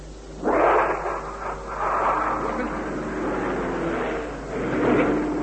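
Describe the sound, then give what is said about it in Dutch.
A low-flying reconnaissance airplane roars overhead, a broad, rushing engine drone that swells in loudness several times, surging strongest at the start and again near the end. “hallo, verkenningsvliegtuig, hallo, over.”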